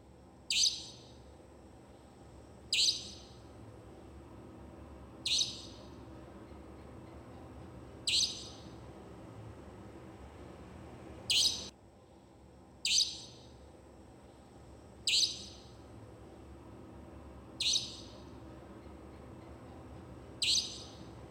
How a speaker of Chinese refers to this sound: 怎么样？你们有感受到我平常那个在那个鸟叫声的频率，在三更半夜的那种魔音感吗？